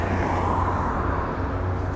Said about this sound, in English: There was my fucking bus. Unless it's out of service.